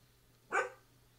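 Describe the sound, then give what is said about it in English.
A single sharp dog bark, moderately loud, standing alone against a quiet background with a faint low hum. “My dog's barking.”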